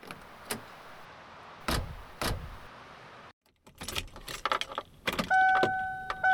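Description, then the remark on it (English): Someone gets into an old gas-guzzling car: a couple of heavy door thuds over a low idle hiss, then keys jangling and rattling, ending with a steady two-tone warning chime. “Me? In this prehistoric gas guzzler? Nah. I drive eco friendly, man. None of that. Just get in.”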